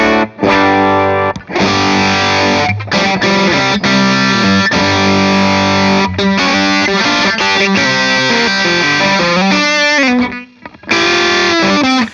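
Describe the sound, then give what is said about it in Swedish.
A loud, heavily distorted instrument plays sustained, buzzing chords with a few short breaks, sliding notes near the end, and a brief pause before it kicks back in. The distortion's control knobs are all set to twelve o'clock. No one speaks. “så det går ju både att ratta mer och mindre dist.”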